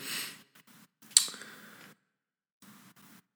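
A few slow, deliberate breaths close to the microphone, airy inhales and exhales separated by short pauses, with no talking.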